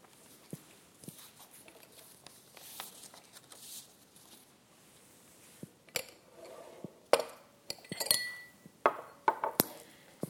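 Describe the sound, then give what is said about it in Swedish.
Three drinking glasses clink and knock together as they are set down on a hard surface as a teaching aid, a scatter of sharp chinks growing busier toward the end, with soft shuffling in between and no talking. “Vi har ett glas som det står Gud fader ett glas som är Gud, sonen Jesus och ett glas som är Gud, den helige anden, hjälparen.”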